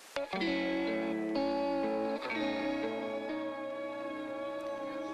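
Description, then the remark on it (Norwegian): A rock song by an Oslo-based band plays loudly and steadily, with dense, distorted guitar chords that shift every second or so over a sustained, full-band sound. No voices are heard. “Nok et Oslo-basert band der, … med låta '…'.”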